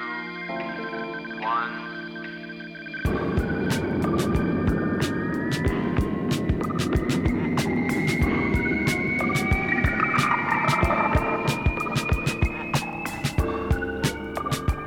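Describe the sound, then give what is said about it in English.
A steady electronic hum gives way to a loud, sustained rocket-launch rumble of a spaceship taking off, a deep roar threaded with a slowly rising whine and sharp crackling bursts, with no one speaking. “Yes, that's a spaceship taking off.”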